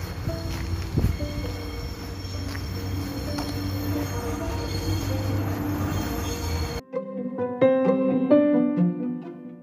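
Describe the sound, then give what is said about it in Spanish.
A train rumbles past on the railway beside the Escuela Especial Dr. Reyes Contreras, a school next to the train line and a road, a steady loud roar with low grinding and some metallic tones, then it cuts abruptly to a shorter burst of higher, ringing tonal sounds. “son el sonido del tren y los autos, ya que estamos al costado de la vida del tren y la ruta.”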